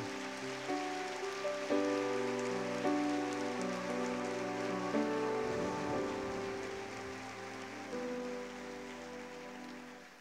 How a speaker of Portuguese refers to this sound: é para Jesus, você pode aplaudir.